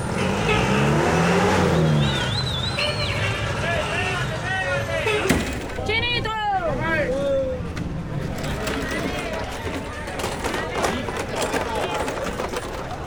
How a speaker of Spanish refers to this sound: O un punto en la ciudad bastante congestionado que es especialmente en las horas pico donde está la India Catalina.